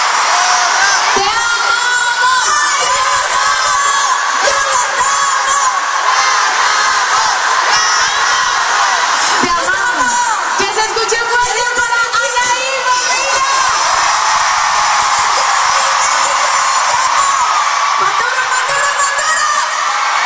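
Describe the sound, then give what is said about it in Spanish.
A dense concert crowd cheers and screams continuously for about twenty seconds, a loud sustained roar with high-pitched shrieks and whoops rising above it, no individual voices standing out. “Pues así se vivió parte del concierto”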